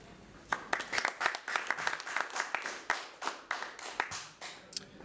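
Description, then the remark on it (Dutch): Polite applause from a live audience: a modest, steady patter of clapping hands, fairly sparse and even, without cheers, lasting several seconds at moderate volume. “Beleefdheidsapplaus is het mooiste applaus voor een artiest.”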